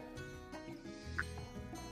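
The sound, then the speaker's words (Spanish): A rooster clucks in short, low bursts, fairly faint, with one sharper cluck standing out briefly over a steady background hum. “Y del gallo, que siempre va a estar conmigo en todos los lives.”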